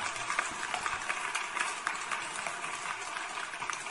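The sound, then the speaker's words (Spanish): A steady hiss of an insecticide aerosol spray aimed at a fly, continuous for several seconds with slight sputtering fluctuations, with no one talking. “Mirar, escuchar, insecticida.”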